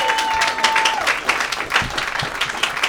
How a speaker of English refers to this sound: Jeremiah, congratulations. One more round of applause for Jeremiah. 12 years of hard work.